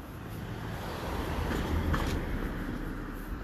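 A car passes by outside, its steady rumble swelling gradually to a peak midway and then easing off again, with no one talking over it.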